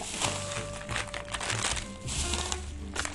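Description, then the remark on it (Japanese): Continuous crinkling and rustling of a plastic bag as five tea products, bought from the Sapporo tea shop Lilia, are pulled out, with irregular crackly bursts throughout and no talking. “はい今ですねえーと、と5つの商品がですね、えー、ビニール袋の中から出てきました”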